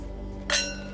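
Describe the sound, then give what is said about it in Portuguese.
A single bright clink of wine glasses touching in a toast with wine, followed by a clear ringing tone that fades slowly, over a low steady background hum with no talking. “vamos terminar brindando com um vinho que talvez seja o mais parecido que a gente pode chegar hoje.”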